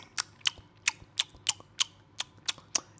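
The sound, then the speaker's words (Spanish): A voice imitates someone eating with their mouth open, as heard among diners in China and Hong Kong: about ten sharp, wet lip smacks in a steady rhythm, fairly loud, with no talking. “Este sonido tan terrible de escuchar a alguien comer con la boca abierta es parte del panorama musical cuando vas a China, también en Hong Kong,”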